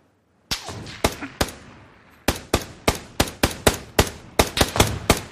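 video game gunfire

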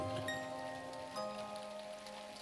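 heavy rain pouring down

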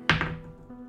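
dice being rolled

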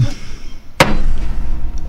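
hammer strike sound effect

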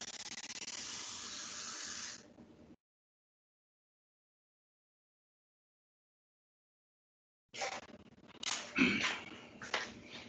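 water running

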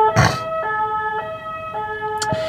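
ambulance siren passing

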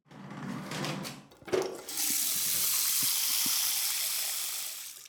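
water drawn

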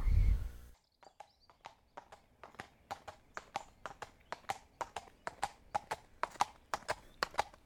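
donkey hooves clip-clopping

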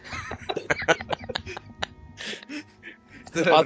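loud burp

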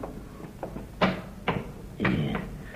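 rattling a locked door

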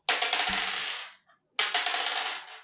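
dice being rolled

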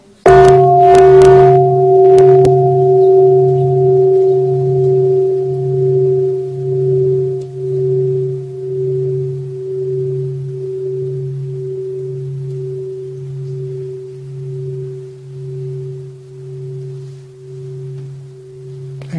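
bell struck

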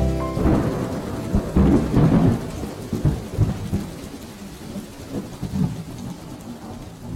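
heavy downpour of rain

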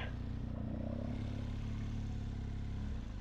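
motorcycle riding off

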